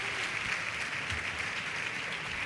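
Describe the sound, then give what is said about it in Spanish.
Sustained audience applause for a carnival comparsa at the proscenium of a stage at 10:28 at night, a dense steady wash of many hands clapping at an even loudness throughout, with no talking over it. “Agradecen profundamente el aplauso del público.”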